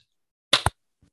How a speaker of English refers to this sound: We'll do a clap. All right, one, two, three.